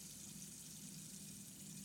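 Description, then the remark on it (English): Water flows in a steady, continuous rush, like a small waterfall or running stream, with a broad hiss and a low rumble holding even throughout and no voices. “The water again? Yeah. It's like a waterfall. The way it flows.”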